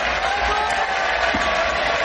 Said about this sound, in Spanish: Los ciudadanos de Camerot vitorean y saludan a la bella Ginebra.